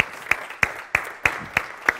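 Applause in a steady rhythm: six sharp, evenly spaced claps about a third of a second apart, with a soft wash of noise between them and no one talking.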